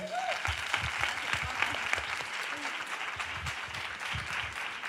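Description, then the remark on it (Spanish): Steady applause from an audience, a dense crackle of many hands clapping at once, sustained and fairly loud throughout with no voices standing out. “Un aplauso para ellas que son las que se lo ocurran un montón.”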